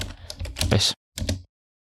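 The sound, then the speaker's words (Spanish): Dense bursts of sharp clicking in an audio track being edited, like fast keyboard tapping, in two groups separated by a brief silence; crisp, with no voices. “Aquí creo que tiene que haber dos clics, a ver, casi con toda seguridad.”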